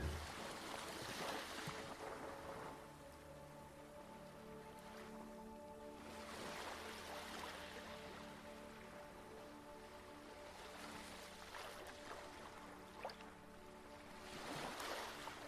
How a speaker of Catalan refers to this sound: Ara et fixes en com es retira cada onada com deixa el teu cos i se'n torna al seu sí, a la seva immensitat.